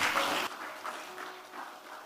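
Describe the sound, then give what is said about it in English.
A burst of audience clapping, given as a clap for God, starts loud and dense, then thins out into scattered, softer claps over the next second and a half. “give god a clap we have to close”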